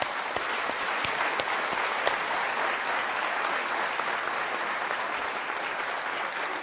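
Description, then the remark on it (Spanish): Steady applause from an audience at a business meeting, a dense continuous patter of many hands clapping at an even level for several seconds, with no voices on top. “Un aplauso a todos ustedes.”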